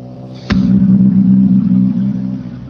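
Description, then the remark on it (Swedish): A rally car, the second car in the competition, driven by Craig Breen and Paul Nagle, arrives at the stage finish; its engine bursts in suddenly with a sharp crack, then holds a loud, steady roar that eases off slightly toward the end. No one speaks. “Nu är bil på väg in den andra av bilarna i tävlingen.”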